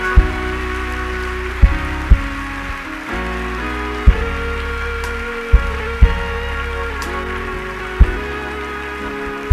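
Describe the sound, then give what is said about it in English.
A church audience claps for people as they go forward, using their hands for the Lord, in a dense, steady patter beneath sustained organ-like chords, with sharp drum or beat hits punctuating the music every second or two. No one speaks. “Are you clapping? Use your hands for the Lord.”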